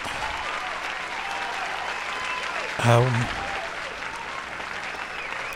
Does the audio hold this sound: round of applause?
yes